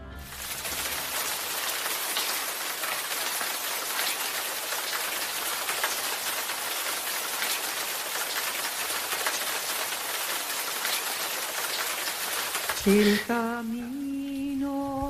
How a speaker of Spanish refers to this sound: Ese ruido que habéis oído al principio de, es, el, es un riachuelo precioso que da fondo a la canción.